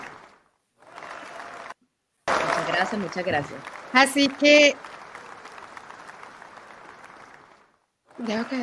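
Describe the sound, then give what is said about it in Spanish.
Audience applause: a dense wash of clapping that breaks off briefly, then resumes for several seconds under a person speaking, tapering off before a short fresh burst at the end. “Aplauso, por favor.”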